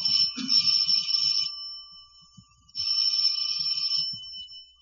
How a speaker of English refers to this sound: And the second time last week that romance entered the apartment of George and Sapphire was when Herbert Jackson, a magazine solicitor, rang the Stevens doorbell.